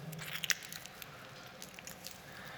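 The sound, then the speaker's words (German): Wet clay being kneaded with water, giving soft squishing and slippery squelches in an irregular rhythm, fairly quiet, with a few sharper smacks and no talking. “nimmt diesen Ton und knetet da Wasser hinein”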